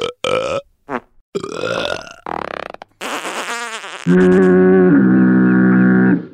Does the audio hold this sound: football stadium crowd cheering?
no